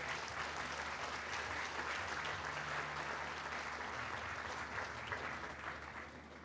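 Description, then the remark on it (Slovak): A crowd applauds steadily, many hands clapping in a dense, continuous patter that holds at an even level for several seconds before easing slightly at the end. No one speaks. “Myslím, že to je priestor pre potlesk.”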